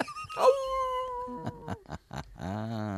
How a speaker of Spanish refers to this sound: Estoy tan llena que el perro de mis vecinos me aulló cuando pasé a su lado.